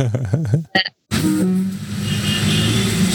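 A brief voice is followed by the steady rumble of a crowded local city bus engine and road noise on an evening ride into town, with muffled chatter from local passengers running beneath it.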